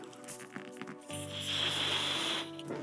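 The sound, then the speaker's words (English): A steady, breathy rush of air lasting just over a second as someone blows hard into a decently sized balloon to increase its size, fairly loud, with a soft rubbery squeak near its end. “See, the beauty of a balloon like this is I can increase its capacity even though it's a decently good size.”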